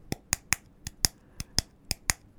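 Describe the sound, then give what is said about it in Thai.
Sharp, dry slaps of a blue 1-inch PVC pipe, about 20 cm long, struck against a palm, about ten crisp hits in a loose, uneven rhythm with no talking. “ท่อ PVC สีฟ้าขนาด 1 นิ้ว ความยาวประมาณ 20 เซนเนี่ยทำให้เกิดเสียงผมลองเอาท่อ PVC นี่นะครับ ตีบนมือผมนะลองฟังเสียงดูนะครับ”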